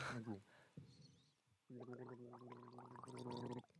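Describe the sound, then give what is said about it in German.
Someone gargles water in the mouth, a short bubbly burst followed by a long sustained gurgling throat rattle that wobbles in pitch and ends abruptly. “Da hast du Wasser oder, im Mund.”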